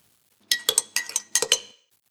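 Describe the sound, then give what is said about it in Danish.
Coffee cups clink together in a toast several times in quick succession, bright ceramic knocks in two or three clustered bursts, fairly loud, with no talking. “Skal vi ikke lige skåle os i gang her? Det gør vi. Skål i kaffe og kimono”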